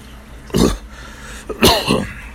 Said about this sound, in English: But you get to see me coughing and shit. That ain't cute.